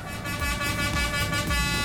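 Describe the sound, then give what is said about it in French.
A loud foghorn blast at a funfair holds one steady, brassy tone for about two seconds, continuous, over a low rumbling background. “il faut de l'électronique dance music commerciale poussée à fond un grand renfort de basse qui résonne dans tout le voisinage, des cris d'effroi qui s'échappent des manèges, une pointe de corne de brume.”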